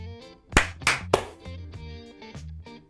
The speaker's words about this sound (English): clap in three, two, one.